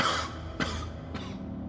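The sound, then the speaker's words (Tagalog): Two short coughs from one person outside a house, about half a second apart, over a steady low background hum with no talking. “Tapos narinig namin sa labas ng bahay na may umubo.”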